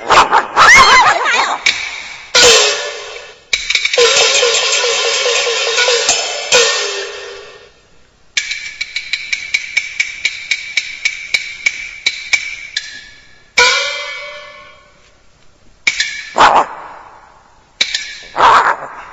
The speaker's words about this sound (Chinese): 哦哦，哎，是狗啊，是狗啊！哎，这母狗下崽哎，好咬人呐。